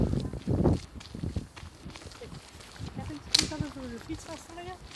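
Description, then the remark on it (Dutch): Several voices murmur and call out together over a shuffle of footsteps, the chatter of a small crowd rising after a few heavy steps at the start; a mass of people suddenly walking toward the recorder, heading in the direction of a very large building. “Voilà, je hoort al een paar stemmen.”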